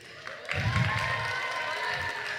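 An audience breaks into steady applause for the SFR and Capgemini teams brought on stage, a dense wash of clapping that swells within the first half-second and holds at an even, fairly loud level to the end.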